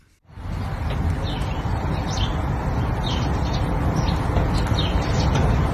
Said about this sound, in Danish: Den vakse lytter eller øh, gætte mester i studiet vil jo i hvert fald notere sig, at der sidder nogen fra spurvefamilien og snakker lidt i forgrunden.